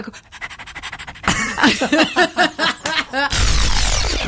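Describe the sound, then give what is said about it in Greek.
A person imitates a dog's panting, quick rhythmic breathy huffs repeated about a dozen times, fairly loud, ending in a burst of noisy rustle. “Κάνει πράγματα σαν τα σκυλιά, α πούμε, ναι.”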